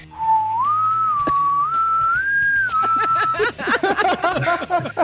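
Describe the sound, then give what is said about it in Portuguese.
A short whistled tune of a few smooth, sustained notes gliding upward in pitch, clear, followed by people talking and chuckling. “Nada, né, ela ficou, passou uma músicazinha no ouvido dela assim.”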